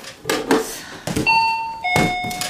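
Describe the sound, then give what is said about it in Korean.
A few sharp clunks, then an electronic doorbell sounds a clear two-tone ding-dong while someone is unpacking after moving house, each note ringing on and fading slowly. It is fairly loud, with no voices. “한참 짐 정리를 하고 있는데 초인종이 울렸다.”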